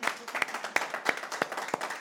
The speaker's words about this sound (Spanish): Y que todo sea para la gloria y la honra de Dios. Un fuerte aplauso y vamos a orar.